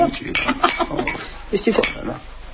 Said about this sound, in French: Recréer à l'aide d'options sonores l'ambiance d'un bar directement chez soi.